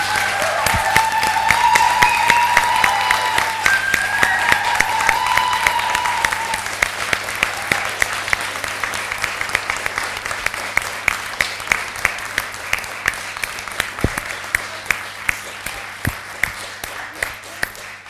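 Sustained audience applause for a just-introduced empowerment and self-defense trainer, dense and loud at first with a few cheers, then thinning into scattered, sharper individual claps as it gradually fades.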